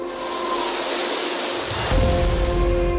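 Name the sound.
rainstorm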